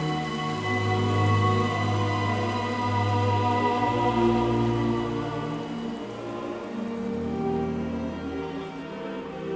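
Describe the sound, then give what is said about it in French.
Steady, fine, incessant rain hisses continuously throughout, blended with sustained musical tones beneath it, falling on a woman waiting for a train at a railway station; the patter stays even with no pauses and no voices. “Marie attend le train, refroidi par cette pluie incessante et fine”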